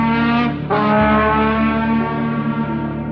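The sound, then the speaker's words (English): A professional trombone player blares loud, low and raspy, imitating a roaring car exhaust: a short blast, a quick break, then a long sustained rumbling note, unaccompanied. “I would play exhaust sounds through the sound system, and I even hired a professional trombone player.”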